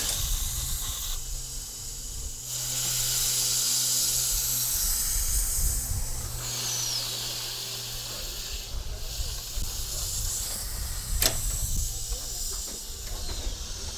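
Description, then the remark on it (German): The steam locomotive Emma, pulling a train toward Wächtersbach, rumbles steadily under a constant loud hiss of steam, with occasional high squeaks and a single sharp metallic clank near the end. “Ihr hört das sicher, wie es hier rumpelt, quietscht und äh, wie soll man das sagen, malt.”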